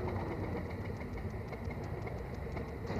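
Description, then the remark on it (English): An old vintage car engine, restarted after the car had stopped, runs steadily, a dense low rumble with a faint rhythmic knocking throughout, no voices over it. “We had stopped there and he got it going again.”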